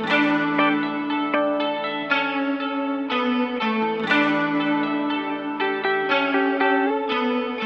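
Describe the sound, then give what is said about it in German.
Three layered electric guitar tracks, recorded live with a loop station and left unchanged, play together in a steady, repeating loop, with effects-laden chordal tones ringing out loud and no voices. “Ja, was man da hört, sind einfach die drei essentiellen Gitarrspuren, die ich mit der Loopstation damals aufgenommen habe.”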